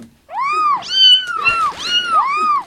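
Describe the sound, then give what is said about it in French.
Several kittens in a bag meow insistently in quick succession, their high, rising-and-falling cries overlapping at times, loud with no talking. “Ce sac donc rempli de chatons.”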